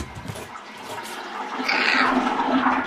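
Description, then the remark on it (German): A toilet flushes a pair of pink paper glasses away, starting with a bright hiss of rushing water that swells louder around midway and keeps gurgling and draining steadily to the end. No one speaks. “Ich habe nämlich gespült.”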